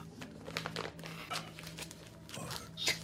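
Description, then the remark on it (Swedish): Papery rustling and crinkling as the pages of a small notebook are flipped, several brief crackly bursts spread irregularly over a few seconds, with a faint steady hum underneath. “Vad står det i den här lilla anteckningsboken då?”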